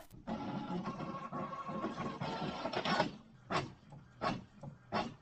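machine, printer printing out pages

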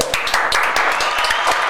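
crowd, hand clapping

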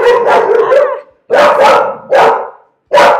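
animal, pet dog barking

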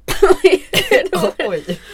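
human body sound, coughing

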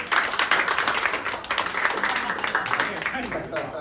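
crowd, audience applause

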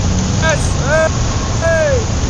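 vehicle, motor engine running

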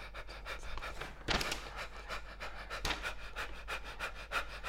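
human body sound, rapid panting breaths

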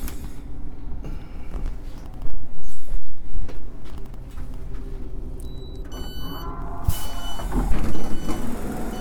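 vehicle, train running on rails

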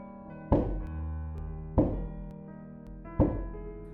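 impact, knocking on a door

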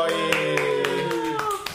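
crowd, audience clapping hands

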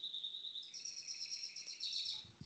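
bird, birds chirping

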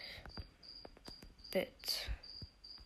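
insect, cricket chirping

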